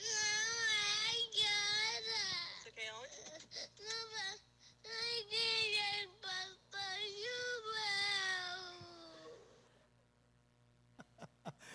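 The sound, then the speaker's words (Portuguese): A young boy wails desperately in long, high, strained cries broken by short gasping breaths, loud, before the sobbing trails off into near silence with a few faint clicks. “Vocês vão ver porque que ele está chorando em desespero.”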